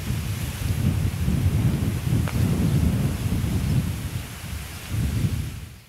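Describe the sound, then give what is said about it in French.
Strong wind gusts outdoors, a heavy low rumble buffeting the microphone, swelling and easing in waves for several seconds with no voices. “Voilà mes chers amis, le vent se lève,”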